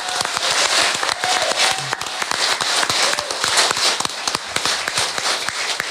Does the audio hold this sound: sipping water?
no